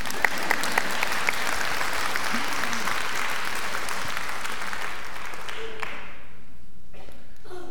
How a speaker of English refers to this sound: Clap for that.